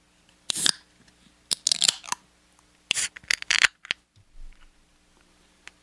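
A beer being cracked open: a series of sharp metallic clicks and crunching snaps in several short bursts, followed by a soft low thud, with no talking.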